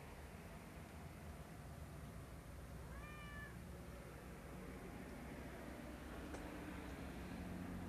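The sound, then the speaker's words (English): A single short, fairly soft meow from a cat that keeps trying to climb up a person rises and falls once over a steady low background hum; no one speaks. “This cat keeps trying to climb up me.”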